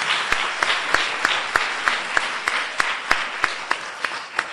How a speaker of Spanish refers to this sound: Y también un aplauso para él. Muchas gracias.